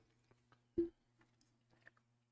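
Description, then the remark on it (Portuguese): Quiet chewing: one louder mouthy crunch early on, followed by a few soft, scattered wet clicks and smacks over a low steady hum, with no talking. “Deixa eu dar uma mastigada, velho.”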